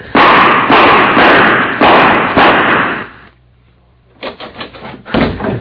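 A door lock is battered apart: four heavy, crashing blows in steady succession, a short lull, then a faster flurry of loud banging and splintering hits.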